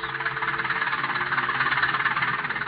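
A steady tractor engine runs continuously with a rapid, chugging pulse as a farmer mows his fields on Landis Farm in Jefferson County, at an even volume throughout, with no voices.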